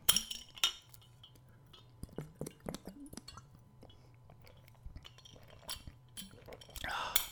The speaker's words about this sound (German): Und natürlich, und bevor wir mit Nummer 4 weitermachen, ein Schluck aus der Wasserflasche.